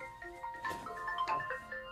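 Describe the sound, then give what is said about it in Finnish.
A mobile phone ringtone plays a bright electronic melody of short repeating tones, moderately loud, with no one speaking over it. “Oh, se on sun puhelin.”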